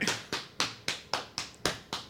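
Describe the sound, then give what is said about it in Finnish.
A drum beat tapped out by hand, demonstrating a band's drummer's trick of leaving out the hi-hat hit on the snare beat: eight crisp, fairly even slaps in a steady rhythm, each with a sharp attack and quick decay, some hits a bit brighter than others. “Hän jätti virvelin iskun kohdalla hi iskun tekemättä.”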